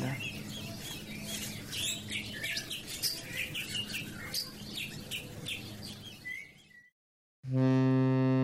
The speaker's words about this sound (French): Les colibris, cacatoès et perroquets butinent et chantent encore l'aube et le crépuscule de ce jardin d'Éden.